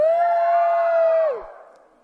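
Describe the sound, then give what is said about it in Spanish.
A loud, sustained high-pitched shout from a crowd of children at the Biblioteca México library, held steady for over a second before dropping off and fading into a short echoing tail. “A ver, creo que se animaron con el grito.”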